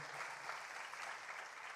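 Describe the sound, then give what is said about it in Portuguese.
An audience applauding to the Lord: dense, steady clapping with no break, a broad hiss of many hands at an even moderate loudness. “Vamos aplaudir ao Senhor, gente.”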